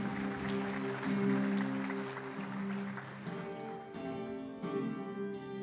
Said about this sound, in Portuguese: Dê uma salva de palmas ao nosso rei aí, amém?